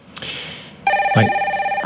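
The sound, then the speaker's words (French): A telephone rings with a bright, rapidly trilling electronic bell, steady harmonic tones pulsing quickly for about a second, preceded by a brief softer chime, with no voices present. “C'est l'heure du téléphone.”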